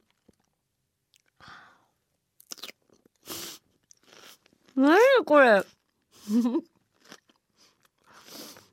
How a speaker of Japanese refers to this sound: いい音 CM かと思った自分で何これ歯が折れるかと思った 何この野菜のシャキシャキシャキすごいですねこれどうやったらこんなシャキシャキになるんだろう